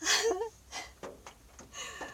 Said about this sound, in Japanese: あーダメだごめんなさいあくびが出ちゃったすみません